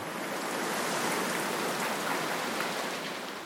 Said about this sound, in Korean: 몸은 시체처럼 굳어 있고 귀는 당나귀처럼 커져서는 창문으로 들리는 빗소리에 가슴이 털컥 내려앉는다. 뭐지? 어? 비?